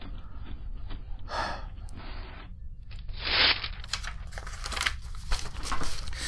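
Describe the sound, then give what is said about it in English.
Paper feeds out of a printer with steady mechanical whirring, broken by several brief rustling and crinkling bursts as sheets slide out, one louder swish around the middle. No one speaks. “there's something else coming out of the printer.”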